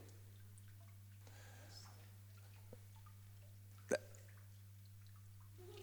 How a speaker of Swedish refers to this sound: Det rinner vatten där borta. Fantastiskt.